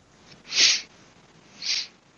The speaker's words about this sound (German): Ich habe dich gerade nur schniefen hören, wenn ich. Ach. Ist auch erkältet, okay.